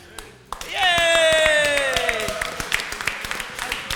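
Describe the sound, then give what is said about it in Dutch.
An audience bursts into clapping, dense and steady for several seconds, while a loud voice cheers with a long, falling whoop over the applause, applause given to thank Via Cultura for the broadcast's technical work and camera images. “Dus boven deze gezelligheid uit mag ik één groot applaus voor Via Cultuur, alsjeblieft.”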